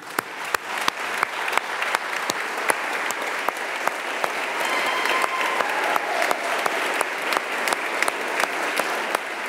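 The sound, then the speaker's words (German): Sustained applause in the National Council (Nationalrat) chamber, dense steady clapping from many hands for several seconds, with a faint murmur of voices underneath, as the council welcomes member Philipp Kutter back after a long break, in mid-September. “Sibyl, was hören wir da? Das ist die Reaktion vom Nationalrat.”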